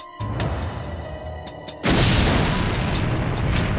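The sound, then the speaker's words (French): A sudden, loud blast of a package bomb in New York State bursts in after a low rumbling lead-in, then a dense roaring, crackling wash of debris and noise sustains to the end, overwhelming. “L'explosion fut si violente qu'elle projeta Fowler à 5 mètres de là.”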